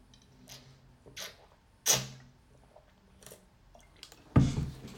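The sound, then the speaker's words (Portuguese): A person drinking water: a few soft, wet swallowing and sipping sounds spaced a second or so apart, ending with a louder, fuller thud as the container is set down. “Clica aí, aproveita, que eu vou beber uma água.”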